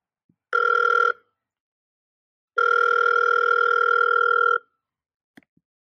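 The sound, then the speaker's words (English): A telephone rings twice for an expected incoming call with a steady electronic tone, a short burst followed by a longer one, loud, then a faint click as it's picked up; no one speaks. “he's supposed to be calling me here shortly. I think uh, Monty Miller might be on the line”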